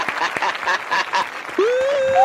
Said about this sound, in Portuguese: Aplausos!